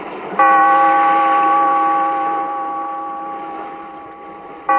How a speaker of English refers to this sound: Bellkeeper, toll the bell.